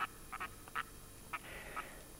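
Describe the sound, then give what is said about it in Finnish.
A red-throated loon gives a cackling call in flight over a yard in late April, announcing its return to its nesting pond: a quick run of six or seven short, harsh, nasal notes in uneven bursts, fairly faint over a soft hiss, with no voices. “Taivalta kuuluu tuttu kaakatus, kun läheisen lammen kaakkuri ilmoittaa paluustaan.”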